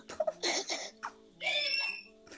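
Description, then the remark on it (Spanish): A young girl shouts in the background of a home video in high-pitched, squealing bursts: a few short cries, then a longer drawn-out yell, heard at moderate volume with no other talk. “Ahí está gritando sin ir más lejos de fondo y la podemos escuchar.”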